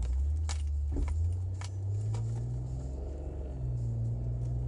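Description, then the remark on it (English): A car engine rumbles low from inside the vehicle, its pitch rising and falling as it pulls out onto the road, with a few faint clicks and rattles in the cabin. “I'm here in my office live today in my car trying to pull out onto the road here.”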